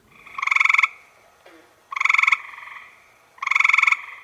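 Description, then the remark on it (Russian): A variable toad from North America calls three times in a steady rhythm, each call a loud, buzzy pulsed trill lasting about half a second, with short pauses between and no voices present. “Это не рыба. И это изменчивая жаба из Северной Америки.”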